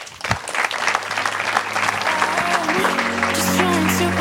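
An audience applauds a speaker at the end of a presentation, a dense wash of many hands clapping at a fairly loud, even level that builds slightly and holds, with a low steady hum underneath.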